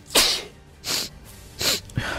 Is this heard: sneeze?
yes